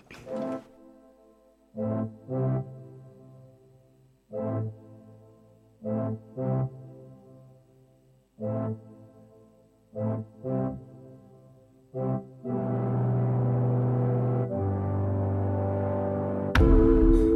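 An indie pop song intro, the original version played on Radio Bern 95.6, opens with punchy, rhythmic chord stabs, then swells into loud, sustained droning synth tones near the end, with no vocals yet.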